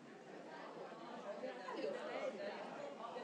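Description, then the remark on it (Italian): Many voices in a large audience at Pordenone Legge call out at once, a dense overlapping chorus of shouted replies that swells briefly, as the crowd under a yellow tent answers a question about the last Italian Nobel laureate for literature. “ho sentito un coro eh, sotto questo tendone giallo colore ufficiale, l'ultimo Nobel italiano è stato Dario Fo 22 anni fa”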